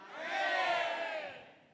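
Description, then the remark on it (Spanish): A small group in a church audience shouts loudly together in one sustained, swelling roar of many voices, rising to a peak and then fading over about two seconds, with no speech over it. “este grupo de acá, aunque usted no lo crea, fue el que votó los muros de Jericó con el grito que dieron.”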